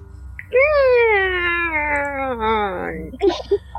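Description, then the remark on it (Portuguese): A voice imitates a door slowly creaking open with one long, drawn-out, wavering groan that gradually sinks in pitch, fairly loud, ending with a few short breathy bits. “Essa é a porta abrindo.”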